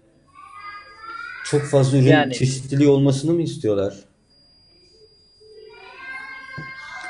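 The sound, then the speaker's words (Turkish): High-pitched children's voices chatter in the background at the Bornova Municipality (Bornova Belediyesi), where people in need are being helped, fading in before and after an adult speaks in the foreground; the kids sound lively. “Şu an yani bütün çocuklar orada sanki.”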